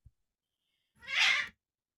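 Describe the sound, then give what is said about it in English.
A single short, harsh yowl from cats fighting, lasting about half a second and moderately loud, with silence around it and no talking. “As my cats are fighting, one second.”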